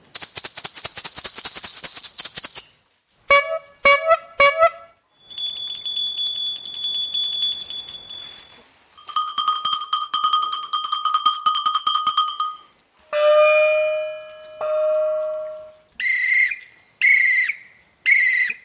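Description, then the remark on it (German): A series of signals for calling animals back on a large savanna with seven animal species, no talking: a dense rattle for giraffes shaken for a few seconds, then short honks from an old bicycle horn for rhinos and bright, high rings of a small bell for zebras, repeated in bursts. “Also für den Giraffe haben wir Trasseln, für Nashörner haben wir eine alte Velohupe für Zebras haben wir ein Glöckchen, das ganz hoch hell tönt.”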